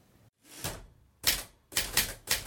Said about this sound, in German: der die Schreibmaschine als Instrument in seiner Musik integriert?